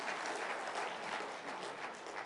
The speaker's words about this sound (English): If my timeline is correct, January 1st, 2018 would be the first time since 2009 that we as a church family started the new year off as a completely debt free congregation. And all God gets all the glory for that. You can clap for that.